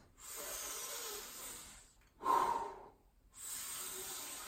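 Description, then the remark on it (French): A long, airy breath drawn in deeply to fill the belly fully, followed by a short, louder gust as it is released, then another steady breath begins, as a belly-breathing technique. Soft, hissy and unvoiced, with no talking. “Simplement, je prends à fond et je relâche.”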